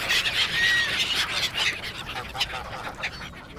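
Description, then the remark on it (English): Ducks and coots squawk and honk in a busy, overlapping chorus, with harsh repeated calls, strongest at the start and tapering somewhat toward the end. “But in London, I live on a boat, and I do have a very high tolerance for the obnoxious squawking of ducks and coots.”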